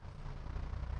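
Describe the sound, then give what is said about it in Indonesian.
A motorcycle engine rumbles with a deep, steady drone that swells slightly louder over a single second, no voices present. “soalnya ini suara motor kadang”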